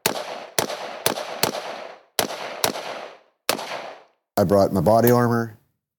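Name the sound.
gunfire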